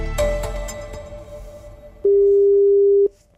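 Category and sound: signal or alarm, telephone call ringing tone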